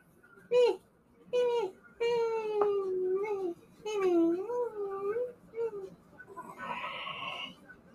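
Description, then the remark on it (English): A voice imitates a hungry baby bird with a string of high, whiny, wavering cries and whimpers, rising and falling in pitch, ending in a short breathy, noisy squeal. “Okay, so uh, so you get down, and then um, the the little the little bird uh says uh.”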